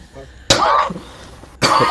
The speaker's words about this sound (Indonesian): eh, kok lu batuk sih